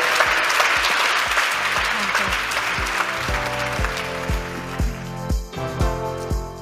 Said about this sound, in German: Ich danke Ihnen dreien ganz, ganz herzlich für diese für mich zumindest wunderbare Diskussion und das ist Ihr Applaus.